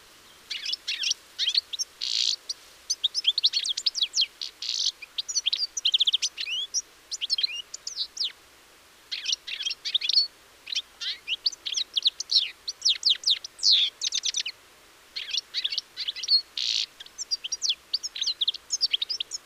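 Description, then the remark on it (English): A songbird sings steadily, a rapid run of high, tinkling chirps and twittering phrases broken by brief pauses, with no voices or other sounds around it. “the red mask of the male extends back behind the eye, whereas that of the females doesn't”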